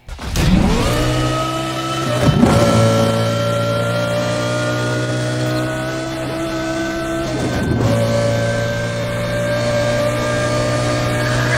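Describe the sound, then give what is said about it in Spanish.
A powerful race car engine in the video game The Run roars steadily, its revs surging and dropping with a couple of sharp gear shifts, loud with no talking. “Los autos suenan poderosos y acordes a su modelo, al menos hasta donde sé yo.”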